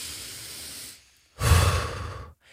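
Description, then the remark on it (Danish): A slow, steady breath drawn in through the nose, a brief pause, then a louder, breathy exhale pushed out through the mouth, with no talking. “Altså, prøv en gang lige at lave den her, og træk ind med næsen ud med munden.”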